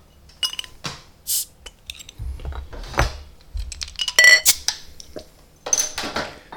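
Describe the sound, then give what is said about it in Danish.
A Hornbier beer bottle being opened: clinks of glass and metal, a bottle cap with a cow on it prying loose with a couple of short sharp pops and hisses, amid light handling noise and no talking. “Skal vi ikke åbne den? Jeg er lidt tørstig i dag, jo, vil jeg sige.”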